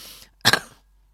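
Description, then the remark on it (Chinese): Two quick, harsh coughs from a speaker in close succession, loud and breathy, with nothing else before or after but a faint hiss. “不好意思，大家这个有点咳嗽，”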